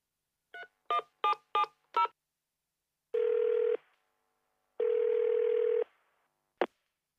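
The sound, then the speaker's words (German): A customer service phone number is keyed in with five quick dial-tone beeps, then two long ringing tones sound in turn before a sharp click as the line picks up. No one speaks. “Sie rufen eine Servicenummer an und hören Folgendes.”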